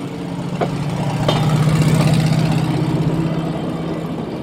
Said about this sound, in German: Sieht aus wie ein Auto. Ein Schienenauto. Hören wir, hören wir mal das Schienenauto.